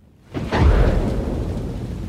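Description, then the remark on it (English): A deep rumble of thunder rolls in suddenly and swells loud, followed by a steady, heavy downpour of rain hissing continuously. No one speaks. “And then it rained. And not just a little bit.”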